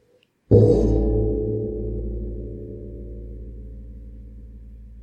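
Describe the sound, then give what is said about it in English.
A single gong strike after a brief silence, with a sharp attack that blooms into a deep, shimmering hum and slowly fades while still ringing at the end, heard alone. “you have a gong there?”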